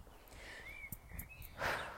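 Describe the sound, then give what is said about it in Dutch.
Faint birdsong outdoors: a few thin, rising and falling whistled notes drift in over a low background rumble, with a brief rustling burst near the end. “Hoor je de vogeltjes?”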